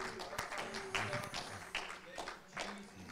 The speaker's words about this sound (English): Come on, somebody clap your hands and give him some praise. Amen.